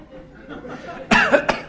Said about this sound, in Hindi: आपको लगा आप ठीक हो गया और ठीक हो गया वास्तव में फिर किसी ने एक दिन याद दिया अरे वो तुम्हारी खांसी ठीक हो गई